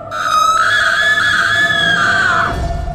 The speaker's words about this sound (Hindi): वो सोचने लगा कि यहाँ से कैसे निकला जाए कि तभी बाजू वाले कमरे से एक जोर की चीख उसको सुनाई पड़ी